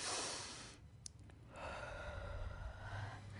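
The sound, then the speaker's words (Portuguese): A long, deep breath drawn in, a brief pause, then a slow audible exhale, with no talking. “Veja como tudo muda quando a gente respira.”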